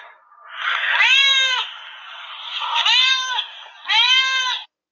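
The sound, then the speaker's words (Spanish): A cat meows three times in close succession as it greets its owner arriving home, loud, each call a drawn-out, harmonic-rich wail, with the last two sharper and slightly shorter; no one speaks. “a lo cual llegué a casa, mi fiel gato comenzó a recibirme.”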